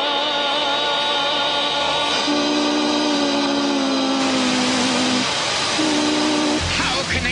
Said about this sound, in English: defeat our perfect sound! Anti sound, white noise.